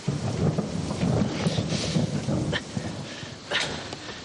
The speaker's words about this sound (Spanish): Ahí viene. Un hombre corre bajo la lluvia.